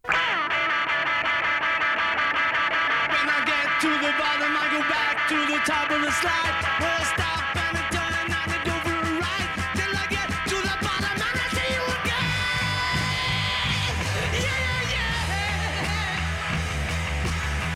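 A loud, dense hard rock song with heavily distorted guitars, pounding drums and a raw, screamed lead vocal, driving steadily at full volume throughout.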